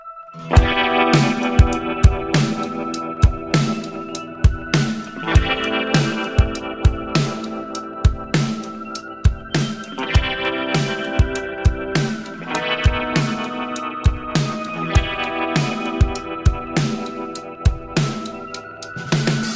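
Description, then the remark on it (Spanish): A band's new rock song, part of their upcoming third studio album, plays loud: driving drums with sharp, regular hits under layered, effects-heavy guitars, steady throughout with no voices. “Estrenaron un tema impresionante que va a ser parte de su tercer álbum de estudio”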